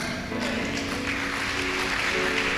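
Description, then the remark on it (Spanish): Steady audience applause fills the room, a dense wash of many hands clapping at a constant, fairly loud level for a few seconds, with a faint murmur of voices underneath. “Oye, eso merece un aplauso, ¿verdad?”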